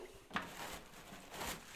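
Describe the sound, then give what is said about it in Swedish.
Paper towels are pulled from a dispenser during handwashing before entering a stable: a sharp rustling tug, then a second papery pull a moment later, fairly quiet, with no talking. “Pappershanddukar.”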